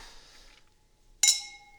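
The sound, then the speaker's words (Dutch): A single bright clink of glasses striking together in a toast, clear, with a sustained ringing tone that fades out over the following half second after some quiet rustling. “Cheers. Cheers.”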